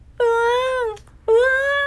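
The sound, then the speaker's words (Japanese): A voice imitates a child's crying wail in two long, drawn-out sobbing cries, each sliding slightly downward in pitch, loud with a short pause between them. “えーん、えーん、えーん。うわーん、うわーん、うわ”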